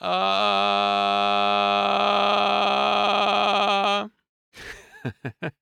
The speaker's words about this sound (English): If I made a gravelly sound, it might sound like this.